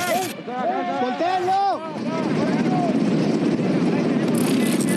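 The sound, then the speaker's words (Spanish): A helicopter's rotor thrums loudly and steadily, a dense churning whir that fills the scene, with people's voices briefly audible over it at the start, as the captured drug lord El Chapo is escorted toward the helicopter by two marines. “Se observó que iba escoltado hacia un helicóptero con las manos a la espalda.”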